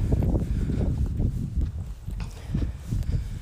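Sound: footsteps on asphalt road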